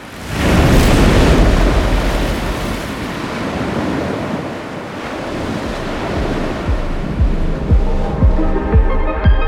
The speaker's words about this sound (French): et aussi la mer démontée des jours de tempête, quand le bruit des vagues n'est que fureur et fracas.